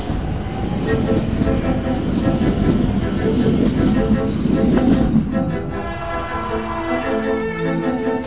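A train thunders past without stopping, a loud, steady rolling rumble for several seconds that gives way to sustained tonal whining as the cars continue through.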